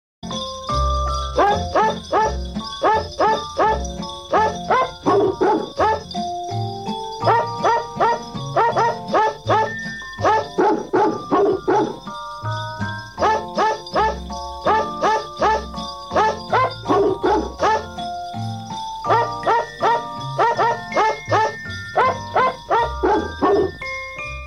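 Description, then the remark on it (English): A novelty recording of dog barks pitched and sequenced into the melody of Jingle Bells, with short rhythmic yelps over a steady jingling bell backing and bass accompaniment, loud and continuous throughout. “Uh, for the first time in many years, due to scheduling issues, we were not able to play for you in conjunction with Christmas the famous Jingle Bells as sung by ….”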